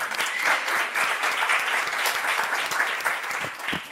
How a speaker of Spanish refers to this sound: Yo te la aplaudo también.